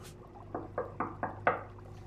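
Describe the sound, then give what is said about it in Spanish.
Five steady, evenly spaced knocks on the door of a cabin, moderately loud, with the last one slightly harder; no one speaks, just a faint low hum underneath. “Y por supuesto, hicimos lo único que se puede hacer cuando estás enfrente de la casa de alguien. Tocar la puerta.”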